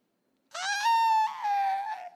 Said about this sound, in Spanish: Y ¿qué pasó por ahí? Gritos de lamento.